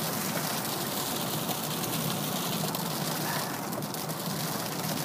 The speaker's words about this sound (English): Up, oh, the rain has decided that it wants to take, it wants to have its its voice heard.